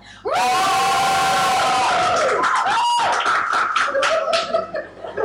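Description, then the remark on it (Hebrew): A live audience at the Dwarves' Feast event erupts in loud cheering, with whoops, shouts and scattered clapping that swell suddenly and hold steady for several seconds before tapering slightly. “והפעם יש איתנו קהל.”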